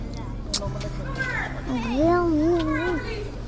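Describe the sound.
Children's voices fill a school playground on the day school reopens, with a child's high, wavering call rising above the general chatter and a steady low hum underneath.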